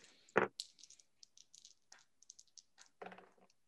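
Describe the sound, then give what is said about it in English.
Dice clatter as they are rolled for a luck roll: a sharp rattle, then a run of quick, light clicks and taps as they tumble across a surface, and a final burst of rattling. Fairly quiet, with no talking. “We'll do a do a luck roll.”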